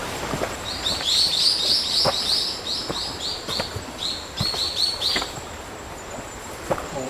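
Birds sing in a jungle forest on Iriomote, Japan, in August 2021, repeating bright high-pitched chirping phrases almost continuously and clearly, over a quiet background broken by occasional soft crackles and snaps.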